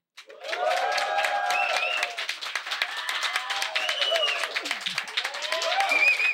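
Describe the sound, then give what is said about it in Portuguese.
A live audience at Cineclube Cortina, a venue combining gastronomy, cinema and music, claps loudly and steadily for several seconds while voices cheer, whoop and shout over the dense, rapid applause, which stays strong throughout and swells slightly at the end. “Então estamos aqui no Cineclube Cortina, que é esse espaço que une gastronomia, cinema e música, com uma plateia maravilhosa que vai fazer muito barulho agora.”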